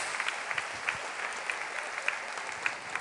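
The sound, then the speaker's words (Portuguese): An audience claps steadily in praise to the Lord for the life of brother Marcos, many hands producing a dense, continuous patter of applause with scattered sharper claps standing out, fairly quiet overall and with no voices. “Aplauda ao Senhor, glória a Deus pela vida do irmão Marcos.”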